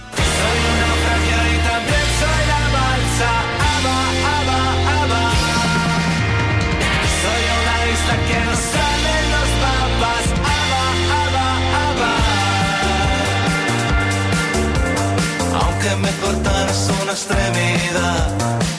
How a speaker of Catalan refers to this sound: Divendres passat van estrenar un nou single per posar banda sonora a tota una novel·la que ja ha vist la llum. Una cançó sensacional que sona així.